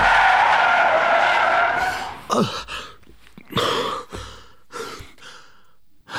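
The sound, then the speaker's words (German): A loud, sustained screech of a Range Rover's tires skidding under hard braking lasts about two seconds and cuts off as it stops just beside a tree, followed by several short, shaky gasps and heavy breaths. “Geschockt drückt er auf die Bremse und kommt knapp neben einem Baum zu stehen.”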